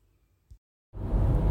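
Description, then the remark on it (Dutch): A low hum and a brief click give way to a moment of quiet, then loud, steady driving noise from inside a car: deep engine and road rumble with a broad hiss. “Ik zit in de auto ehm, en de sorry voor het lawaai.”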